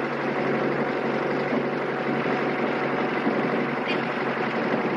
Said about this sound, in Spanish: Más tarde, el joven conduce el camión mientras Miguel observa por la ventana.